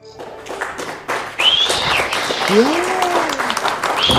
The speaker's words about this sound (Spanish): ¡Bravo, bravo! los aplausos de lata. Que eso, por supuesto, nos delata.